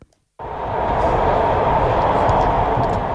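A metro train on the newly opened Batıkent–Sincan metro line in Ankara, Turkey, runs steadily on its rails during the line's opening ceremony, a loud, continuous rumbling roar that kicks in abruptly after a brief moment of near silence and holds constant throughout.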